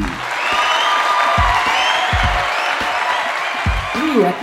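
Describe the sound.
A steady round of applause from a crowd for a returning guest, a neuroscientist and clown, dense clapping that holds at an even loudness for several seconds, with a few indistinct voices and low bumps mixed into it.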